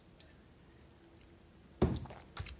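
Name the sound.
sip of water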